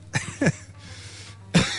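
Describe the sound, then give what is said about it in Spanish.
Three sharp coughs in quick succession, a pair near the start and another after a brief pause, with a faint hiss between them and no talking. “Por cierto, si veis que alguna que en un momento del programa me muero de tos, es porque no porque fume, ¿eh?”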